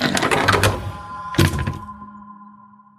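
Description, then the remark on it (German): A door swings and falls shut into its latch with a dull, heavy thud, followed by a faint resonant ring that slowly fades. No voices, just the impact and its lingering echo. “Danach fiel die Tür mit einem dumpfen Geräusch ins Schloss.”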